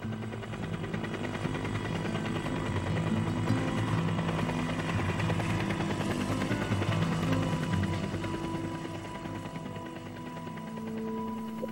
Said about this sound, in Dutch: En in mijn hoofd hoorde ik nog dat geluid van die helikopter wieken.